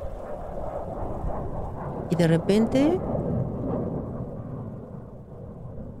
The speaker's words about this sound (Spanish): yo a lo lejos escuché el ruido de un avión.